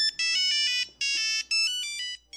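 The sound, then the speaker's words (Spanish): An old mobile phone ringtone, bright and synthetic, plays a quick chiming melody in short bursts with brief gaps, loud with no voices. “Cuando tu teléfono sonaba así,”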